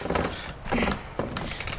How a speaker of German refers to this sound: Äh, also, die Tür ist aber ganz schön verzogen. Ich krieg sie gar nicht auf!